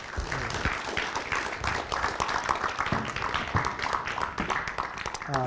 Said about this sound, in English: Let's give her a big uh, round of applause.